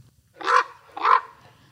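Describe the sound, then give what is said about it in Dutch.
Two harsh, throaty croaks from a common raven in the Netherlands, about half a second apart, fairly loud against a quiet background with no talking. “Ja, echt het meest fantastische eh, geluid vind ik zo'n beetje van Nederland, namelijk de krokkende raaf.”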